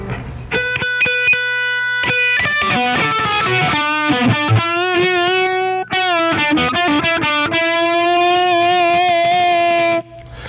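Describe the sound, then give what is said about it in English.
Electric guitar plays loud, sustained single notes through an effects chain with a compressor used as a volume boost, with quick echoing repeats, each a little different, trailing the attacks before long ringing tones take over; no one speaks. “But the, and, but the reason I put it after is for the same reason, in that it'll boost the echoes.”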